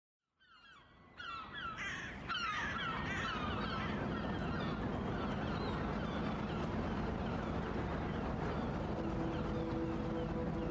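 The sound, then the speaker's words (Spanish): Seaside ambience: a steady, loud rush of surf and wind builds within the first couple of seconds, with harsh gull-like squawks calling over it early on. No one speaks. “Empezamos a escuchar los sonidos del mar.”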